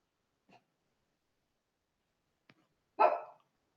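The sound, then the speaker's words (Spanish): A single short bark from Bruno the dog, preceded by a couple of faint, brief sounds amid otherwise quiet. “Bruno está de mal genio. no sé si lo escucharon.”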